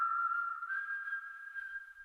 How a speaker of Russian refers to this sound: Каждый раз в минуты своего душевного подъема, собираясь в дорогу, он насвистывал одну и ту же свою мелодию.